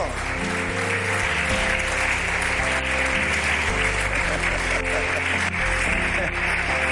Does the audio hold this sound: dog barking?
no